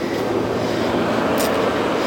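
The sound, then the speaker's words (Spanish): A tram rumbles steadily and continuously, a dense low roar with a brief hiss of higher noise partway through, loud throughout with no clear voices. “Salimos otra vez al tranvía.”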